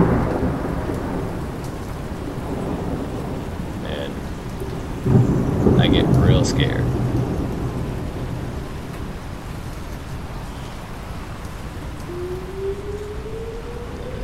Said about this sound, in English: And then darkness comes, and the rain starts, and it gets loud, and it gets really loud, and it gets windy,